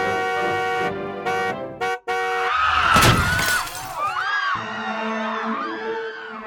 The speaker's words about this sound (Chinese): 一辆失控的车冲进了会场，直接撞在他身上。人们的祝福欢呼声瞬间变成了刺耳的尖叫声